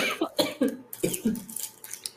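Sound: coughing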